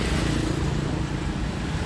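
Steady, dense road noise from busy traffic on Âu Cơ street, at a bus stop beside road construction works, a continuous low rumble of engines with cars and motorbikes blending together, fairly loud and constant without any voices.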